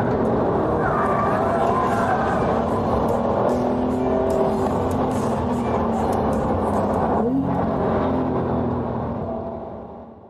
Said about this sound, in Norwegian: penger til dekk og nok tid på banen, så klarer du å bli ordentlig god til å drifte etter en god runde med denne bilen her. Eller 10 runder, 20 runder, 50 runder. Ja, til slutt blir du fryktelig god til å drifte i denne bilen her, det er helt sikkert.